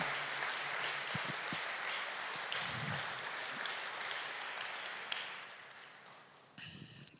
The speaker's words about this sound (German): Lasst uns Jesus, dem Retter, mal einen mächtigen Applaus geben. Amen.